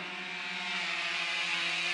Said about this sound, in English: In my lab, we build autonomous aerial robots like the one you see flying here.